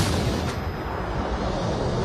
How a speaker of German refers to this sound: Dann fallen Schüsse.